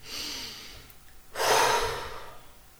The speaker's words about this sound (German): Und dein Körper merkt, dass du gerade mal so einen tiefen Atemzug brauchst und macht das einfach mit dir, manchmal sogar unbewusst.